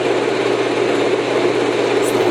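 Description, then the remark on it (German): A steady, low humming drone with a soft rushing texture from a sleep sound device plays continuously at an even volume, with no pauses or rhythm and no voices. “alles Summen, alles rum.”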